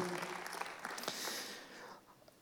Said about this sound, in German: Also Applaus, ich hab's gut gemacht. Super, thank you. Amazing.